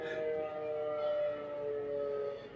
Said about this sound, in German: Das ist, die, Test, die testen jeden Samstag die Sirene. Da merkt man wenigstens, dass wir wirklich in Langenlois sind.